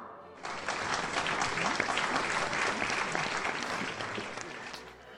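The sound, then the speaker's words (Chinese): Guests at an afternoon wedding break into steady, dense applause to bless the newlyweds, many hands clapping at once in a loud, continuous wash that holds for about five seconds before easing slightly. “在这个大喜的日子里，请各位献上自己的掌声，祝福这对新人新婚美满、幸福安康。”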